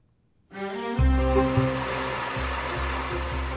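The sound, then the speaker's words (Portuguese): A powerful vacuum cleaner switches on and runs with a loud, steady roar and a low motor drone, holding at a constant level with no one talking. “Este é o som de um potente aspirador, mas há quase dois anos, uma nova lei para o espaço europeu proibiu a venda de aspiradores que consumam mais de 900 watts e cedam os 80 decibéis de ruído”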